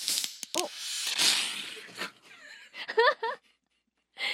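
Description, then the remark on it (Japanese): A glass bottle of cider made from maple tree sap from Chichibu, Japan, is opened with a sharp rush of fizzing gas that hisses loudly for a moment and then sizzles away, with brief voiced sounds and a short laugh around it. “お今音 聞こえましたいや思いっきり飛び出しましたよ元気がいいんですね”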